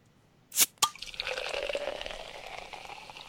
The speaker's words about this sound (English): Has that pour always been that long? and that foamy, like you can hear that head foaming up in it. You're like, that is a poorly poured beer.